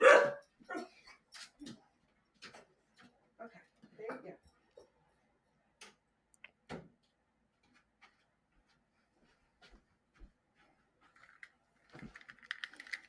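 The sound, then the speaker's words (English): A dog, Hazel, barks sharply, then lets out scattered excited yips and high-pitched whimpers in short uneven bursts as someone arrives home, with quiet gaps between and a burst of whining near the end. “just got home because Hazel's whimpering”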